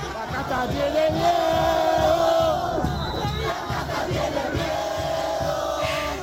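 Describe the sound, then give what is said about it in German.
A large crowd of Javier Millet's supporters at a rally in Argentina cheers and chants in unison that the caste is afraid, a loud, sustained roar of many voices with rhythmic, sung shouting rising and falling over several seconds. “Die Kaste hat Angst, johlen seine Anhänger.”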